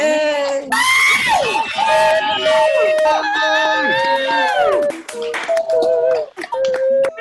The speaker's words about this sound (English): So we're going to take yes. 10 seconds and as loud as we can clap, scream, celebrate this woman.